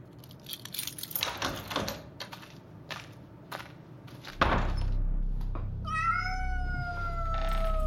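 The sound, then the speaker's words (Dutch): A cat lets out a long, drawn-out meow near the end, fairly loud, after a stretch of clattering and rustling handling noises over a steady low hum. “Ah, poes.”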